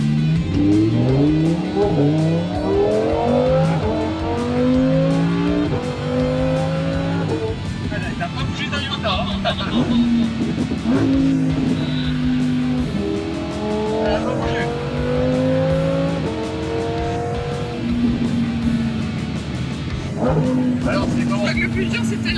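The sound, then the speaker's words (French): A car accelerates hard through repeated gear shifts, the engine tone climbing in pitch then dropping with each change, loud and continuous for over twenty seconds. “on va pouvoir faire la première accélération autour du kiff.”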